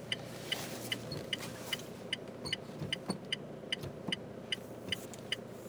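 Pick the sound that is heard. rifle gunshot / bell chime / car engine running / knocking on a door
car engine running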